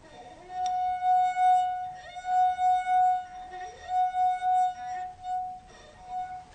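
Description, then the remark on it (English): A clear, sustained ringing note from a glass of water, played by running a finger around its top, holding one steady pitch for several seconds while its loudness swells and dips in gentle waves, with faint background noise underneath. “And then what we asked you to do was to drink half of the water from the glass and play the note again.”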